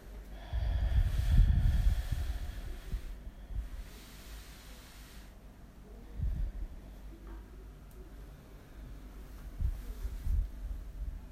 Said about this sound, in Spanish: No queremos cambiar la respiración, solamente observarla como si fuésemos un testigo ecuánime, sin juicio, sin evaluación, solo observando. Solo soy yo con mi respiración.